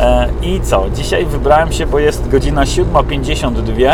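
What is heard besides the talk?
car engine noise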